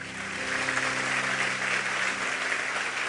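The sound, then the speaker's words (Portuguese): A church audience on Bible Day breaks into steady applause for the Lord and his word, a dense, continuous wash of clapping hands that holds at an even, moderate level throughout, with a faint sustained tone underneath and no one speaking. “Eu quero que você aplaude o Senhor pela palavra dele.”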